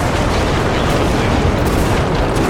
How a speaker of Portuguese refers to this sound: Tá, eu pego a chave e levanto a chave. Porque na hora que tu levanta a chave, vem uma onda de lava pra cima de vocês, uma lava mortal.